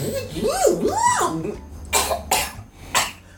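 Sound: coughing and throat clearing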